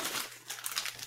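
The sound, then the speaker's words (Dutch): A heavy bag of soft-serve mix is dropped, its plastic crinkling and rustling for about a second in a crisp papery burst of noise that settles briefly, then crackles again. “En ik laat het letterlijk vallen.”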